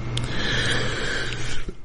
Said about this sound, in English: and I'm going to cough during this show and clear my throat, and I apologize to you.